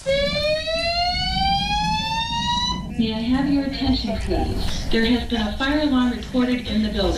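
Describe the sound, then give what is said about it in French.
A shrill, piercing fire alarm that went off as a false alarm blares loudly for a few seconds, its tone rising steadily, before a voice begins talking and the alarm drops into the background. “Alors en fait, il s'agit euh, euh, d'une alarme incendie qui s'est déclenchée.”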